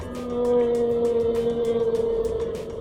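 A long, steady blue whale moan holds a low droning tone for several seconds, accompanied by a rapid train of soft clicking pulses, with no voices present.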